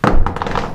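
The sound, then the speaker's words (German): A mobile phone hits a hard surface with a dull thud, followed by a few softer taps as it settles. “oh, das war mein Handy und es lebt noch.”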